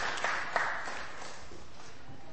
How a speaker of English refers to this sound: a round of applause